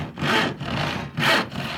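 Wood being sawn by hand, with steady back-and-forth strokes: two rasping, bright pushes alternating with softer pulls, even in rhythm and moderately loud, with no voices.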